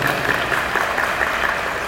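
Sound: audience applause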